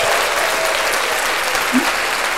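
A steady burst of applause from a crowd for a guest at the end of a show, dense and sustained clapping filling the whole moment at a fairly loud, even level with no talking over it.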